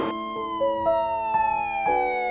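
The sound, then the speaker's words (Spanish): A loud siren wails steadily on its own, the traditional siren sounded every 17 March to remember a bombing attack and the lives lost; a sustained, rich tone that holds and slowly drifts lower in pitch, with no voices. “El tradicional sonido de la sirena, cada 17 de marzo, recuerda el estallido, las vidas perdidas y aquellas que debieron resignificarse.”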